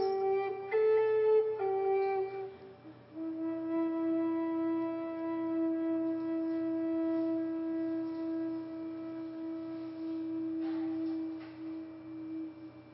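Live flute music: a few quick notes shift in pitch, then the player holds one long, steady, breathy tone for about ten seconds, with no voices.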